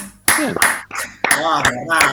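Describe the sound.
Brief applause: a handful of sharp, irregular hand claps, fairly loud, mixed with voices calling out over them for about two seconds.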